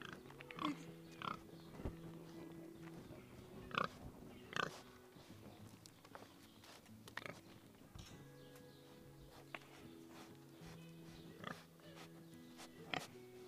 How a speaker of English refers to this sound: Edgar Allan Pig. Perhaps they're both poets in their own right, but I don't translate Porcine.